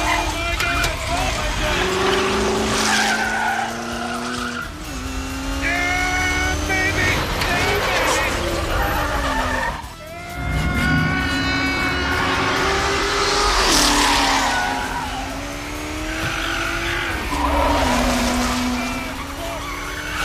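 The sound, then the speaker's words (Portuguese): A race car engine roars during a test drive, revving up and down through repeated gear changes, with tires skidding and a person's voice mixed in beneath the loud engine noise. “A adrenalina que passou enquanto testava seu primeiro carro de corrida deixou o Sr. Henry Ford II extasiado de emoção.”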